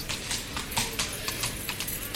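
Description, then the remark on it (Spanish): Horse hooves clip-clop in a bullring as rejoneador Diego Ventura changes horses during a mounted bullfight: a brisk, uneven walking rhythm of sharp knocks at moderate volume over a low background rumble, with no voices. “Y está cambiando la cabalgadura Diego Ventura, ahí lo oímos.”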